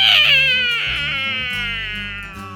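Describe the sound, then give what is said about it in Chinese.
A voice imitates a loud cat meow for the cat character 猫老大, who raises his tail and meows loudly toward the sky: one long, high, wavering cry that starts strong, slides gently downward in pitch, and slowly fades over a couple of seconds. “说完之后，猫老大他竖起他的猫尾巴，对着天空大声的喵！”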